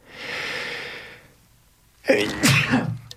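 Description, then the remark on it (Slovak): A long, breathy intake of air, a brief pause, then a single loud sneeze that bursts out sharply and trails off with a rough exhale. “Na zdravie. Pardon.”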